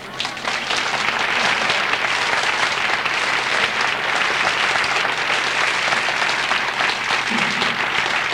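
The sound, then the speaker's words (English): Sustained, loud applause from an audience as a speaker, an author of 32 books, is introduced, a dense wash of many hands clapping steadily for several seconds with no speech over it. “It may seem a little rude when you're so kind as to applaud uh, at that level of volume that I put my hand up and stop it, but it's not just modesty that makes me do that.”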